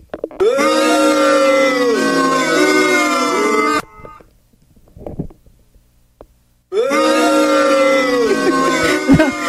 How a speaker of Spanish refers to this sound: No, no, Moni, hay abucheos, por favor, para Moni.